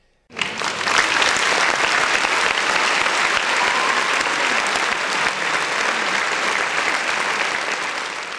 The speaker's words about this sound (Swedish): Så applåder till dig.